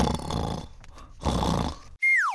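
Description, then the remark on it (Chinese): Two loud, rasping snores, each lasting well over half a second, followed by a sharp whistle that slides downward in pitch, like a cartoon-style snore sound effect, as a man lying on a lounge chair waiting for the sunrise falls asleep. “哎呦，就开始很大声大声的打呼了。”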